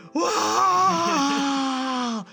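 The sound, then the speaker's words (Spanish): A single voice lets out a long, drawn-out moaning "ahh" of about two seconds, mimicking a whole stadium's anguished groan as a late corner kick falls into goalkeeper Chucho's hands. It is loud, with the pitch sagging slightly toward the end. “La mano salvadora y todo el estadio se escuchó un...”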